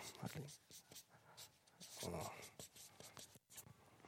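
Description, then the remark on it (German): Quick scratchy strokes of writing the words Father, Son, Holy Spirit on a board, a series of short marker or chalk scrapes in uneven rhythm, moderately quiet, with no talking. “Ähm, Gott zeigt sich in der Person des Vaters, den schreibe ich da oben hin, nicht.”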